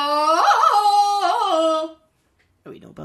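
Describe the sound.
A voice belts out an imitation of a Tarzan jungle yell, loud and warbling, its pitch rising and dipping for about two seconds, followed by a short pause and the start of speech.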